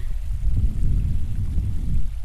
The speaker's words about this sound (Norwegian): er tilbake med bekken. Har endelig fylt vann.